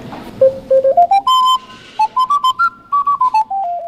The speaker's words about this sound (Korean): 이런 알토 C 오카리나도 있습니다.